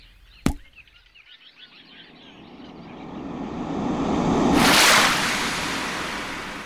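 A sharp, sudden plop as a toad jumps into a well, followed by a swelling rush of churning water that builds to a loud surge and slowly fades.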